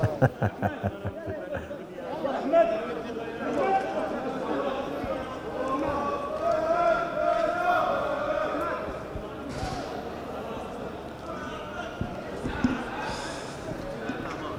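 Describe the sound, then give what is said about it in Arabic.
A dense outdoor crowd outside the Sports Palace in Amman murmurs and cheers continuously, opening with a quick run of rhythmic claps or thumps, with occasional louder shouts rising out of the steady roar of many voices. “فلنستمع يعني للصوت اسمح يعني لي أستاذ خالد مباشرة من محيط آه، قصر الرئاسة قصر الرياض عفوا قصر الرياضة”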